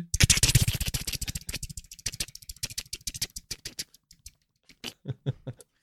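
Rapid tapping on the keys of a bunker alarm keypad, a dense flurry of crisp clicks at first that slows into scattered, irregular presses with brief pauses, heard alone without any voices.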